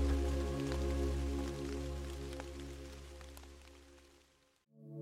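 Steady rain patters softly over a constant low humming drone, with occasional brighter drips standing out; the sound stays even and calm, then cuts off abruptly near the end before the drone resumes.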